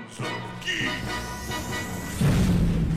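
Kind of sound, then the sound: sound effect, explosion sound effect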